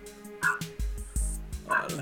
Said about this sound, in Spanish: Aquí les pido una disculpa porque el vecino tiene un perro. Ajá. Ah, y cuando me ve que hago streaming, se pone a ladrar, Como ah, que dice, yo quiero participar.